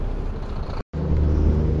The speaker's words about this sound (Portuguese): Tá saindo outro caminhão aqui. Peraí, peraí.